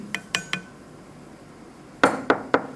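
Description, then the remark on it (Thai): A wooden stick taps a glass bottle six times: three quick clinking strikes, a pause, then three more louder ones, each with a short bright ring and no talking. “เสียงเนี่ยมันเกิดจากตัวไหน ระหว่างตัวเนี้ยระหว่างตัวขวดกับตัวไม้เสียงเกิดที่ตัวไหน อยู่ที่ตัวไม้หรืออยู่ที่ตัวขวดเสียงอ่ะมันอยู่ที่ตัวไหน ระหว่างตัวไม้หรือตัวขวด อยู่ที่ตัวไหน”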